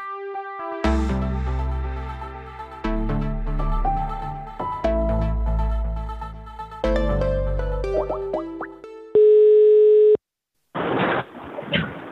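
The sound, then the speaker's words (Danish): A bouncy musical jingle gives way to a single steady telephone ringing tone lasting about a second, loud, as a call is placed to Michael Rasmussen, followed by a brief pause and a burst of crackly line noise. “Men skal, skal vi ringe til Michael Learns to Rasmussen?”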